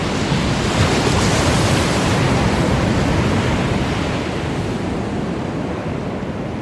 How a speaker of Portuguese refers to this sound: Do lado de fora, Clank, é, Erevan, e, e Sandoval ouvem a água chegando e vocês observam que a água vai chegando, ela perde a força ali embaixo e vocês veem aquela água molhando os pés de vocês novamente, assim.